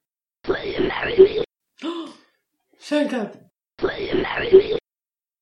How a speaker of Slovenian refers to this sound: No, in potem so te videoposnetke so uporabili za modeliranje tega, kaj bi tako grlo bilo sposobno. Ne? In zdaj vam bom um, zagral dva zvoka, za makake se to sliši tako.